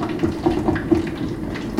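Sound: water boiling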